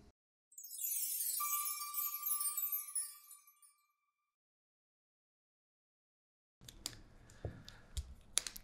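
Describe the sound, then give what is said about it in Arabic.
A bright, shimmering chime-like sweep fades out, then after a pause come quiet pen clicks and light irregular taps on a table as a pen is set down. “صوت القلم ترى شو بعد بطلع ازعاج هذا الصوت الصوت على طول احط القلم اسمع الطقه هنا”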